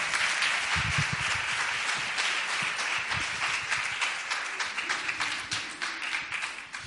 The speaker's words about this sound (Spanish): Un aplauso para los medios, por favor.